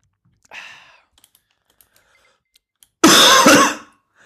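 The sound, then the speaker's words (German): A person coughs twice: a short, throaty cough first, then after a pause with faint clicks, a louder, harsher burst of coughing lasting about a second. No talking. “Daniel trinkt White Russian, ich huste”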